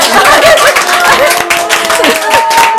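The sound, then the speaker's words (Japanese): A small gallery audience at a radio station broadcast of the Etsuko Selection program applauds steadily, dense overlapping claps filling the whole clip at a loud, even level, with a few voices and laughter mixed into the clapping. “今日ギャラリーの人が拍手を”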